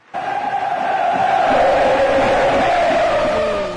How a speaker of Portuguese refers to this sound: Vamos ouvir a torcida cantando pro, pro Diego? Diego?